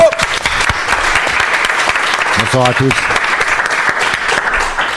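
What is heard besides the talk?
audience applause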